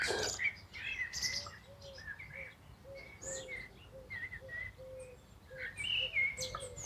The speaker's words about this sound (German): während du wahrnimmst die unterschiedlichen Klänge, Geräusche der Natur, die Musik der Vögel.